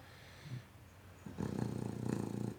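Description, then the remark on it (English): A dog named Deuce snores: a faint snort early on, then one long, rumbling, rattly snore through the second half, low and throaty with a raspy texture. No one speaks. “kind of like the to- the rhythm of Deuce's snoring.”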